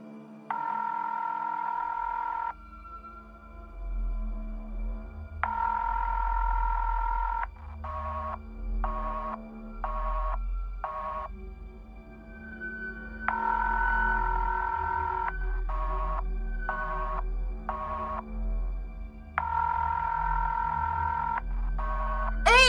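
Telephone tones repeat in a steady pattern: long ringing tones alternate with quick bursts of short dialing beeps. They are clear and fairly loud over a low background rumble, and no one speaks.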